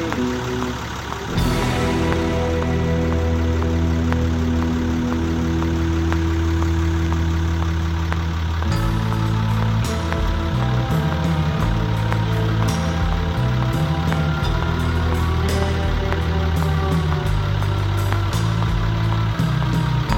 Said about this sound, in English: four horse Dodge Diesel 3500. You can probably hear it.